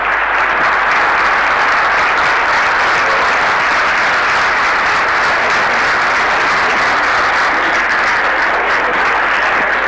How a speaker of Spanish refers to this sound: Chicos, un fuerte agradecimiento al doctor Shiva, nuevamente un gran aplauso, un gran visitante.